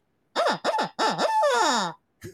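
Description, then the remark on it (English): A duck call, a hunting game call imitating a duck, is blown: three quick, loud quacks, then a longer drawn-out quack, followed after a short pause by one brief final note. No one speaks. “shit, that's a duck call.”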